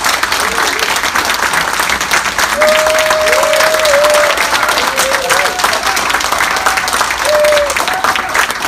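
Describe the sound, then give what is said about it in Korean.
Sustained applause from a large audience welcoming a minister as the speaker of a lecture, a dense steady wash of clapping with a few faint voices calling out briefly underneath. “우리 큰 박수로 예, 맞아주시기 바랍니다.”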